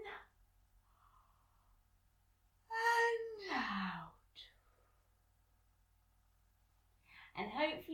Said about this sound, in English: In and out. And one more big breath, maybe even a big yawn.